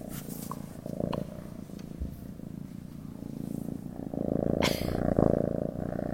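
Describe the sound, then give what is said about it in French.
A cat purrs in a steady, rumbling rhythm, growing a little louder toward the end with a soft breathy accent near the close. “notamment intéressé à la science de son ronron”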